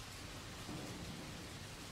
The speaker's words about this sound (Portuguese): Apenas a chuva e trovões me responderam por um tempo, até que ele resolveu se manifestar.